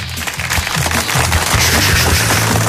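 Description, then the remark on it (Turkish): Steady, loud applause from the hosts and studio guests in a radio studio on a cold morning: a dense crackle of clapping hands mixed with mouth-made imitation of clapping, welcoming a singer. It continues without a break and with no talking. “… Bey e, takdir edersiniz ki bu alkışların bir kısmını ağzımızda bir kısmını da elimizde ve stüdyo konuklarımızla yapıyoruz.”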